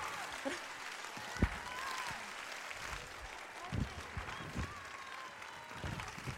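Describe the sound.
Steady applause from an audience fills the scene, a dense wash of many hands clapping with a few sharper individual claps standing out, and some faint crowd voices mixed in.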